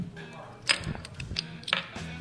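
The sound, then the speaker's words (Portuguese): The cap of a bottle of Tripel beer pried off with a small coin so as not to damage the cap: two sharp metallic clicks about a second apart, over a faint low murmur. “Vou usar uma moedinha, porque eu não quero estragar as, as, as tampinhas são a lindas.”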